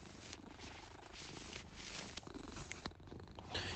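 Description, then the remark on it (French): A small cat wearing a cone collar purrs steadily, a continuous low rumbling drone with soft rhythmic pulses, plus a few faint rustles and clicks near the end. “On l'écoutait, lui, il ronronne quand même.”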